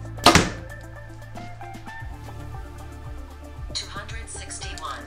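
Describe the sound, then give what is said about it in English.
A compound bow shoots an arrow once near the start with a sharp, loud snap-thunk, during a test of the bow's arrow speeds with arrows of different weights; then the scene settles into a low steady hum with faint shuffling and muffled background noise. “wanna give you that variety so you can see what kind of speeds this bow is really producing.”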